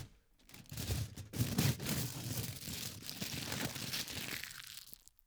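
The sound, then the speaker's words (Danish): Stagnol-brand aluminium foil being crumpled and crinkled for about five seconds, a continuous crackly rustle with sharp bursts, no voices. “Øh, øh, er det, er det Stagnol? Det er lige, hvad det er”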